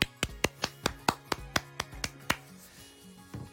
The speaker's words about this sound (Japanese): 一人でねこうやって拍手やってるとすごい儚い気持ちになるんですけどもはいということでビールを飲めるようになりました